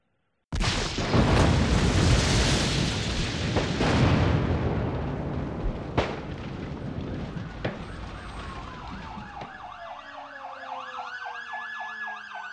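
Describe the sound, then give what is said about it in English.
A massive explosion at the Alfred P. Murrah Federal Building in Oklahoma City, at 9:02 a.m. on a clear morning, April 19, 1995, bursts in suddenly, followed by a long, heavy roar with a couple of sharp crashes inside it. The roar then fades as several wailing sirens rise and overlap. “At 9:02 a.m., a massive explosion rocked the Alfred P. Murrah Federal Building.”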